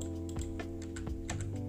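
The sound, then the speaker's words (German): Quick, irregular computer keyboard clicks tap away steadily over a low, continuous hum as someone plays on a PC, with no voices present. “Ja Leute, ihr hört vielleicht im Hintergrund, ich äh, zocke nebenbei PC.”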